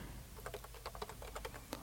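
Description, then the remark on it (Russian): Quick, uneven keystrokes clatter on a computer keyboard set to the Russian layout while typing in Notepad, about a dozen taps in under two seconds, fairly quiet over a low steady hum, with no voices. “Ну, давай вот так пишем, Клавиатура рус.”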